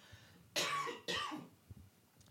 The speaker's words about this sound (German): Warte, ich muss kurz husten.